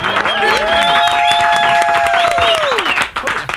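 A studio audience applauds and cheers loudly and steadily for radio and TV personality Cathy Hughes, founder and chairwoman of Urban One. Dense clapping is mixed with high whoops and a sustained shout that rises and falls before the noise tapers off at the end.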